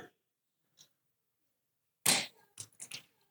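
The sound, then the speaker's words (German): A pen drops onto the floor while everyone keeps silent: one sharp clack followed by a few quick, lighter bounces as it settles. A faint tick comes earlier; no one speaks. “Habt ihr gerade gehört, wie der Stift auf den, auf den Boden gefallen ist?”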